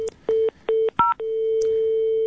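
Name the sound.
telephone keypad dialing tones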